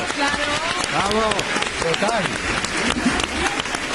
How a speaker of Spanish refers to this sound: Bueno, pues finalmente, eh, bueno, nos están acompañando dos personas de público. Muchísimas gracias. Un aplauso para ellos.